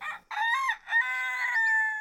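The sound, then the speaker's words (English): A rooster crows once, a loud cock-a-doodle-doo with a brief opening note followed by a long, drawn-out, ringing call that holds steady before trailing off. “As the rooster was right on time, so must I be.”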